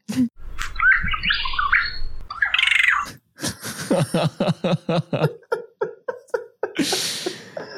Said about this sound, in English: I feel like for this one, we need it the least, but this is what they're supposed to sound like a proper Regent Honey Eater song against the captive Regent Honey Eater song.